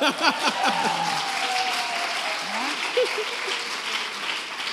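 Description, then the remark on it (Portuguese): An audience applauds the Lord steadily, a dense, even wash of clapping that holds at the same loudness throughout, with faint voices calling out underneath in the opening second. “Aplauda o Senhor nessa hora.”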